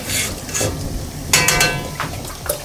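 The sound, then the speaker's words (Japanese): Beaten egg is poured all at once into a hot pan over raised heat with a rush of sizzling, followed by a sharper burst of crackling frying and a little stirring, fairly loud, with no talking. “それで卵を入れてくださいちょっと火強めますはい、どうぞ回し入れちって、はい、バーッと全部入れちってバーッと全部”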